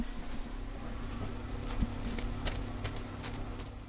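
Soft, irregular crackling of a freshly baked brownie, just taken out of the oven, as it cools: a scatter of tiny clicks and pops over a steady low background hum, with no talking.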